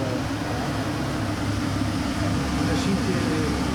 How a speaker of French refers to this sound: un bazar d'aspiration, euh, de hotte.